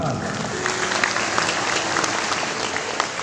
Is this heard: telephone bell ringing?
no